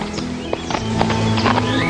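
An old farm horse's hooves clip-clop at an unhurried walking pace, a handful of distinct clops over a low, steady droning background.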